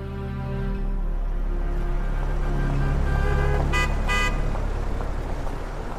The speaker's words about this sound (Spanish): se iluminó el semáforo en ámbar. De los coches que se acercaban, dos aceleraron antes de que se encendiera la señal roja.